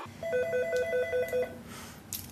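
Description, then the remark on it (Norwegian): A telephone rings with a rapid, warbling electronic trill, two alternating tones pulsing for about a second and a half, followed by a brief rustle and quiet. The call is placed from Norsk Tipping in Hamar, Norway. “Jeg ringer fra Norsk Tipping på Hamar.”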